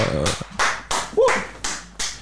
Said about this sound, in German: Können wir selbst mal uns hier zuklatschen und. Applaus, uh.